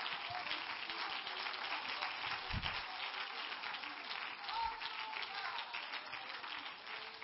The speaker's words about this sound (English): Come on, let's clap our hands unto the Lord one more time.